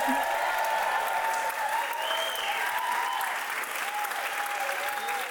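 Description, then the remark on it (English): Sustained applause from a live audience in London fills the room, steady clapping at constant loudness for several seconds, with faint tonal ringing above it and no clear speech. “very good right on cue there, audience. Thank you.”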